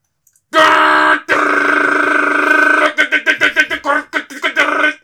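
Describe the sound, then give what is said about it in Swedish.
A loud, harsh screech like a 56K dial-up modem connecting: a steady buzzing, overtone-rich tone holds for about two seconds, then breaks into rapid stuttering bursts. “Det är som ett jäkla 56K ja. from hell alltså.”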